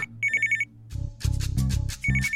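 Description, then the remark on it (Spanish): An electronic phone ring trills in short rapid bursts, stops, then starts again near the end, with louder, fuller clattering sounds filling the gap between the rings. “Escucha qué pasa cuando Mariela contesta el teléfono”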